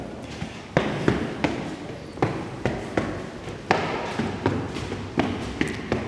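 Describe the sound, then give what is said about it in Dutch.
Footsteps climb an old staircase with its original treads, in a steady, slightly uneven rhythm of a dozen or so hollow thuds and scuffs. Each step is a sharp knock with a brief wooden resonance, and no one talks. “We gaan een trap.”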